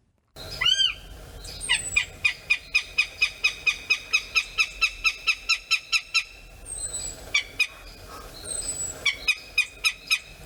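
A northern goshawk's loud, harsh cackling: a rapid, steady run of about twenty sharp, repeated notes, with a few thinner calls before and after, clear against faint background hiss.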